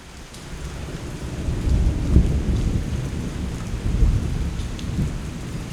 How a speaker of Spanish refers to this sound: La lluvia no para y los rayos y truenos tampoco.